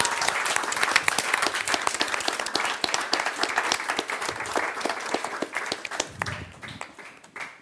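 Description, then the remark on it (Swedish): A crowd applauds the featured guests steadily with dense, overlapping claps that stay loud for several seconds before thinning out and fading at the end. “En stor applåd till våra härliga poddstjärnor.”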